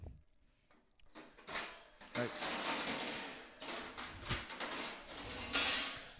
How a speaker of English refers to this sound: It's just loud kitchen noises.